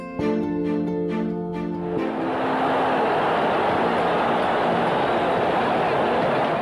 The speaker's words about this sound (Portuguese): Final da década de 70, começo da década de 80. Esse som que você escutou é da torcida do Flamengo naquela época. Maracanã lotado. O velho Maracanã, que ainda ostentava a famosa arquibancada geral.